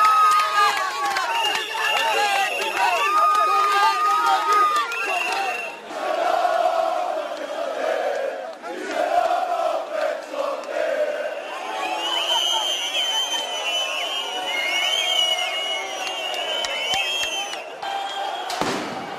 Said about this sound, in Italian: Ieri si sono svolte nuove manifestazioni.